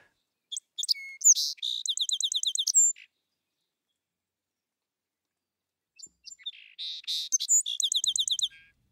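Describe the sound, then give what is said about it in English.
A song sparrow sings twice, each song opening with a few sharp introductory notes and ending in a rapid, even trill, separated by a few seconds of silence. Clear, with no voices. “at the other end of the spectrum, song sparrows seem to actually sing a better song when they've been exposed to the, the poisons.”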